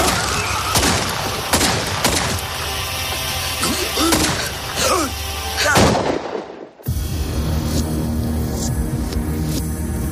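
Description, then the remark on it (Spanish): Rapid, loud gunshots from a .22 caliber pistol crack over a dense rumbling background for several seconds, then break off abruptly into a quieter, steady ambience. “Un cadáver apareció al día siguiente, en un bosque de Daytona, envuelto en una manta, y con tres disparos mortales con balas de una pistola del calibre 22.”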